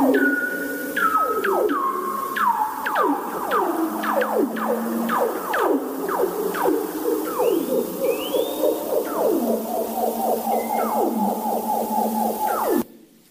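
Overlapping underwater bearded seal calls, long warbling trills that glide steadily downward in pitch, repeat one after another, fairly loud and continuous with an eerie echoing quality, then cut off abruptly.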